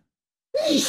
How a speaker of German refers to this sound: Gesundheit.